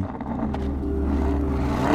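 A car engine hums with a steady low drone that grows louder and revs up in pitch toward the end, prominent with no talking.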